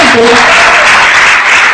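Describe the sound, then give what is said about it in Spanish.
Loud, sustained applause fills the entire moment as an audience at a gathering of a movement of entrepreneurs and leaders applauds itself. It is a dense wash of clapping, with a brief voice or tone rising faintly underneath near the start. “Así que date un fuerte aplauso porque estamos en, un movimiento,”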